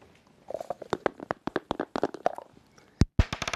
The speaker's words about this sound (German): Ich versuche mit dem Würfel eine 6 zu würfeln.